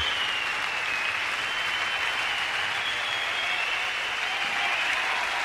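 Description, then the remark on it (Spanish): Sustained applause from a large concert crowd calling for an encore, a dense, steady wash of clapping that holds at an even level throughout, with no voices breaking through. “Bueno, pues eh, ahí están los aplausos del bis.”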